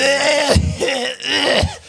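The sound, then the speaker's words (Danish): Two rough, throaty coughs, each a harsh burst trailing into a voiced rasp, with a short pause between them and no talking. “Og nu hoster du også lige ansigt.”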